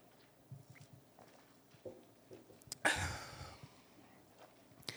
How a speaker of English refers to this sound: but first, I'm going to take a sip of coffee.